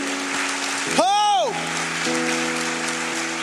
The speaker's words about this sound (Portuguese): Será que você pode aplaudir ao Senhor por isso?